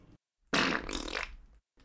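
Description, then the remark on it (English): A single loud, sputtering fart noise lasting about a second, with a buzzy, rattling texture that trails off, set between short stretches of quiet. “Ooh, that, that fart in the wind sounded more entertaining than this hol- micro holiday.”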